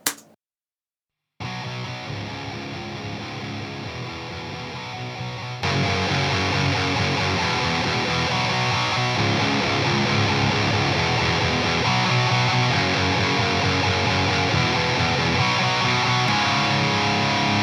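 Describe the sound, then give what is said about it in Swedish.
A heavily distorted electric guitar riff plays with a full band, starting after a brief silence and growing louder and denser about five seconds in, continuing steadily to the end; an example comparing a 57 and a Royer on a 6505, first the Royer, then the 57, then both together. “Sen har vi en som då heter Riff 6505 57 vs Roy- Royer.”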